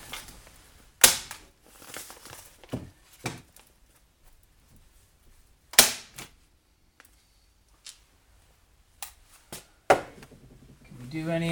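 A staple gun fires several times at irregular intervals, each shot a sharp, loud snapping clack with a brief metallic ring, separated by quiet pauses and a few softer clicks and handling noises.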